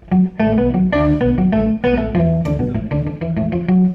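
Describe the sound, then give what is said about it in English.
Electric guitar played through an octave pedal, a steady run of loud notes with a thick doubled low tone under each one, played alone with no voices. “yeah, the octave is pretty cool. It's kind of this sound.”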